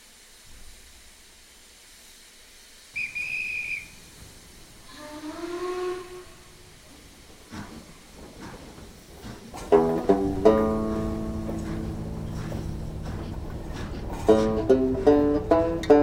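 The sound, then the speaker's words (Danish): An old phonograph cylinder recording, made by a man named Wagner, plays under steady hiss and surface noise: a brief high whistling tone, a few sliding tones, then louder sustained harmonic notes like thin, muffled music. “Det er lyden fra fortiden, og vi hører den kun fordi en mand ved navn Wagner indspillede de her valser og anbragte dem i en kuffert som tydeligvis aldrig helt nåede kejser Karl i Wien.”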